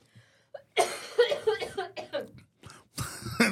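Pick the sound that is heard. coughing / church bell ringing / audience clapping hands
coughing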